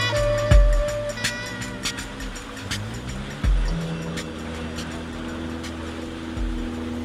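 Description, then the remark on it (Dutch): A boat engine putters steadily at sea on the flat Java Sea, its low droning hum running throughout with a constant wash of water noise and a few dull knocks against the hull. “De motor tuft, de golven zijn vlak, de Javazee is eigenlijk altijd vlak.”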